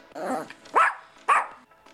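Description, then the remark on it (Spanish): A small female chihuahua gives two sharp, high yaps about half a second apart, fairly loud, after a brief rough grumbling sound at the start. “Pero esta vez son cinco viajeros y un pequeño perro.”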